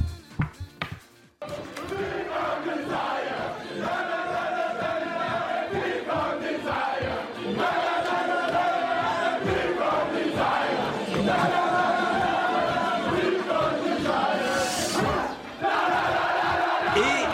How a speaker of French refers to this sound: Et euh, on a la vidéo de l'équipe de France qui chante ça. Voyez la vidéo de l'équipe de France.